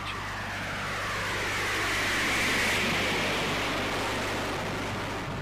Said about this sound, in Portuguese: Vamos fazer uma comparação aqui o ruído de decolagem em duas gerações diferentes de avião. Primeiro, um Boeing 707.